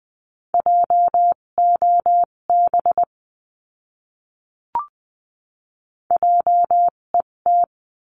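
Morse code beeps at 14-20 words per minute spelling out a word in a Morse practice lesson: one steady mid-pitched tone keyed into quick dots and longer dashes, in two bursts separated by a pause with a brief click.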